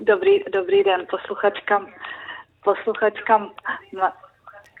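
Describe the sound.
A caller's voice over a thin telephone line speaks, and its words repeat a beat later as the caller's own radio plays the broadcast back through the phone with a short delay.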